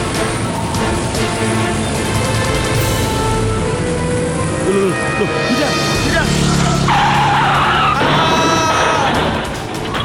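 Car tires skid and squeal loudly for several seconds before a crash, as an oncoming car appears right in front of a motorcycle; a harsh screeching whine over roaring engine noise, rising and bending in pitch near the end, with possible shouting mixed in.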